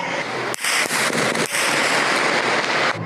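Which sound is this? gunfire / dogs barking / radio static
gunfire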